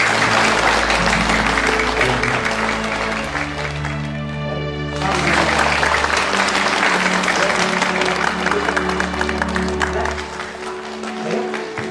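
An audience applauds loudly and continuously for about twelve seconds as a guest is invited to say a few words, a dense steady clatter of many hands that thins briefly near the middle before swelling again.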